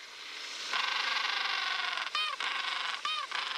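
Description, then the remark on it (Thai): A noisy colony of penguins with a steady wash of chattering calls, then two louder braying, honk-like calls stand out near the end. “ทีนี้พอมาพื้นที่น้ำทะเล มันก็จะมีสัตว์อีกกลุ่มหนึ่ง เช่น วาน โลมาแมวน้ำสิงโตทะเล เพนกวิน”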